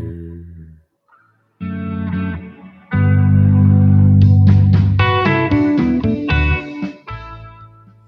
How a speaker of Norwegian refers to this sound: det er liksom easy listening. Man får lyst til å kjøre bil veldig sakte når man hører det. Ja. I solskinn.